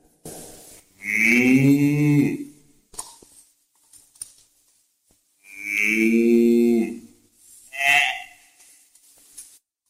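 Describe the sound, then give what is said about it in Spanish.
Two long, loud cow moos about four seconds apart, with shorter lowing calls and a few soft thumps and shuffles in between, like a herd of cattle. “Y Abraham tomó a su esposa Saraí y partió con ella y con sus rebaños de corderos, de vacas y de jumentos hacia el lugar que el Señor le había señalado.”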